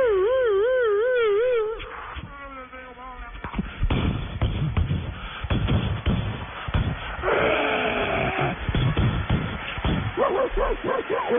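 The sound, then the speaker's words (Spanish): Police dogs bark and whimper in short, loud bursts over a dense, noisy crowd din as fans invade a football pitch and riot police shout, opening with a high wavering wail before the commotion swells. “con perros y todos.”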